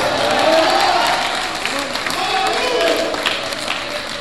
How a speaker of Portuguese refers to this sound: Quem recebe esta palavra, levante a mão e aplauda o seu bem forte. Aplauda o seu bem forte nessa manhã. Pode aplaudir o Senhor forte nessa manhã.